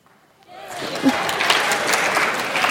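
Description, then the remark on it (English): An audience at the Mill Sunday School breaks into applause, many hands clapping in a dense, steady patter that swells quickly after a quiet start and holds at a fairly loud level to the end. “No, that uh, you weren't supposed to be applauding.”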